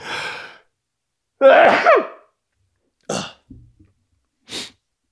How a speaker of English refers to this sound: I had to sneeze.